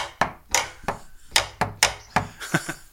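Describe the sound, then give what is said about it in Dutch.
A woodpecker-shaped wooden doorbell knocker raps on a door about eight times in an uneven, fairly quick series. The sharp hollow taps are clear with no voices over them. “Het is een hele bijzondere bel dit.”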